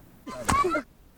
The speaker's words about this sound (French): Vous l'avez peut-être loupé. C'est le son d'un coup de fouet. Les hommes, à la demande des femmes, fouettent violemment le dos des femmes pour plusieurs raisons.